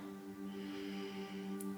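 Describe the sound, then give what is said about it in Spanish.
A slow, quiet deep inhale through the nose during a short breathing meditation, a soft airy rush that swells and fades over a low steady hum, with no talking. “Entonces, inhala profundo.”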